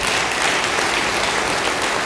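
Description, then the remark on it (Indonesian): A church audience applauds again after a Bible reading, a dense, even wash of clapping that stays loud and unbroken for the whole two seconds, with no voices rising above it. “Beri tepuk tangan sekali lagi.”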